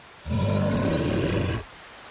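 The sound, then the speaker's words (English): A brown bear lets out a single deep, loud roar lasting over a second, rough and guttural with a rumbling low growl and a raspy edge, then stops abruptly. “In episode one, we discovered that early humans here, hunter gatherers, lived alongside enormous brown bears.”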